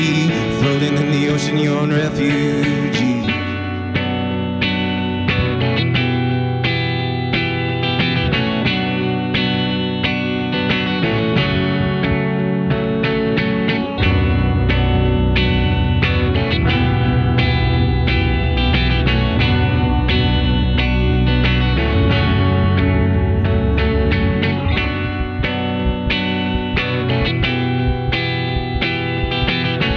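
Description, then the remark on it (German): A band plays live at radio station Kanal K, loud and dense, with distorted, effects-laden electric guitar over a steady driving beat. The bass grows heavier about halfway through. No one speaks. “Wir hören hier live Musik beim Kanal K.”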